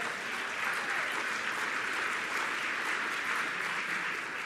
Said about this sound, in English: That's worth a round of applause, is it not, on that one?